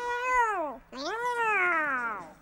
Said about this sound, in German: In diesem Moment ist meine Kitty vom Sofa gesprungen und hat auch miaut.